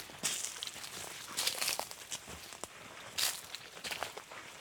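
Footsteps crunch and swish through dry vegetation at a steady walking pace along a narrow path into a field where yams and vegetables are grown, with rustling of grass or leaves between steps and no talking.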